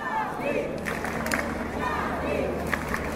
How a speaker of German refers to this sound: Ja, wenn ein paar Millionen Leute Charlie skandieren und klatschen, frage ich mich, was aus meinen Gesprächspartnern von vor zehn Jahren geworden ist.